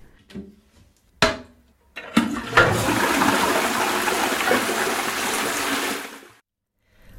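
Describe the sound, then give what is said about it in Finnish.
A couple of sharp clicks from a flush handle, then a loud toilet flush rushes and gurgles for about four seconds before cutting off into silence. “Ravinnossa pitäisi olla siis myös sulamatonta selluloosapitoista ainetta, jonka tosin huuhtelemme lopulta vessanpöntöstä alas, mutta joka on suoliston terveydelle hyväksi.”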